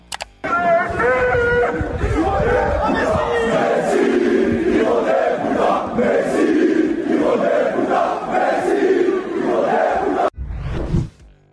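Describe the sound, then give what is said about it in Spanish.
A large crowd of Paris Saint-Germain fans protesting at the club's headquarters chants and shouts against Neymar and Messi over poor results in the Champions League and the domestic league, a loud, continuous roar of many voices with rhythmic surges, cutting off abruptly near the end before a brief final burst. “Sin embargo, Neymar y Messi no se salvaron de los cánticos por los malos resultados en Champions League y también en el campeonato local.”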